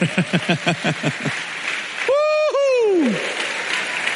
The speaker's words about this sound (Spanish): ¿Cuántos quieren ir a las bodas mejor? Aleluya, dele palmas al Señor.